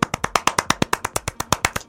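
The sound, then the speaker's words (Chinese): Brisk, steady hand clapping: about sixteen sharp, crisp claps in under two seconds at an even, quick pace, moderately loud, with no voices. “鼓掌，鼓掌，鼓掌，快鼓掌！ 鼓掌，此处应有掌声。”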